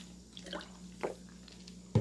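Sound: sipping a little water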